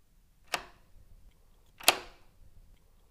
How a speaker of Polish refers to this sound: Słyszysz, jak ktoś otwiera moją szufladę?